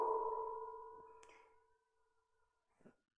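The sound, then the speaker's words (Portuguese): A loud microphone feedback squeal rings out as a steady, humming tone, gradually fading over a couple of seconds, followed by a faint brief knock near the end. “É, está dando microfonia.”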